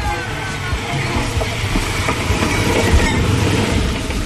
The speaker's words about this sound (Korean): 우리 옛 추억도 한번 회상해 볼 겸 귀로 떠나는 기차 여행 한번 어 그래요? 준비를 해봤는데 네, 네 한번 들어보시죠.